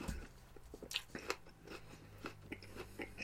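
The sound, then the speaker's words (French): Crisp crunching from someone biting into and chewing a Honeycrisp apple, with a string of sharp bites followed by steady, irregular chewing crackles. No talking. “Très crispy. Un peu sucré, pas beaucoup.”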